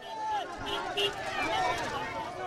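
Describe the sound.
A dense crowd of voices cheers and shouts over one another, a steady rolling clamor with scattered higher calls rising out of the noise throughout.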